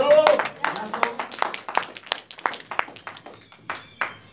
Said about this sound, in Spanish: Ah, un fuerte aplauso